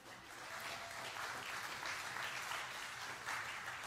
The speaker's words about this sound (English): So if y'all give her a round of applause, so she can hear it down the hall.